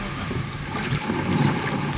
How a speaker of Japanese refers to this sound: はいということでこんな感じでカヌーでこう紅葉の中を川登ってきたんですけれども